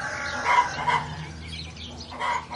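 Chickens on a farm cluck in short, scattered bursts, a few squawky calls over a low, steady barnyard background, with no one talking.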